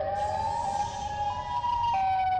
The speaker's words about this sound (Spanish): No, no, no, no, no, efecto no, suenan las alarmas en, Alemania.